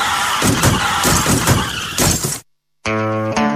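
A loud, harsh burst of crashing, clattering noise, a brief silence, then a sustained high-pitched car tire screech that holds steady until the end; no one speaks.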